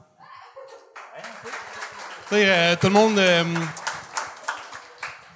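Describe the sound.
Audience applause swells up and continues steadily as a dense wash of clapping, with a loud, drawn-out voice briefly calling out over it and a speaker talking in between.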